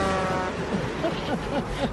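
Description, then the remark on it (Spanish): A car horn sound effect blares as a steady, buzzy tone rich in harmonics, holding briefly and then fading while faint voices murmur underneath. “Póngame otra vez el pito porque no puedo hablar.”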